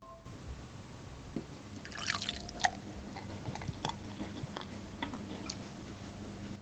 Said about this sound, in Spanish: No sé si se escuchó, pero me serví otro vaso de cerveza.